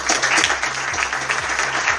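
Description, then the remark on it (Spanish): Steady audience applause at an awards ceremony, dense and continuous clapping from a crowd, fairly loud throughout with a low rhythmic hum running underneath. “Fuerte el aplauso.”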